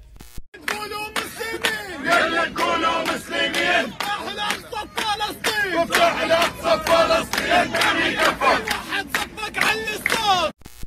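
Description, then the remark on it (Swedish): A large crowd of Hamas supporters in Helsingborg, Sweden, cheers and shouts continuously in celebration, voices overlapping in loud, energetic bursts with rhythmic chant-like surges, sustained for the whole stretch. “Samtidigt firade ett stort antal Hamas-anhängare i Sverige dessa vidriga övergrepp.”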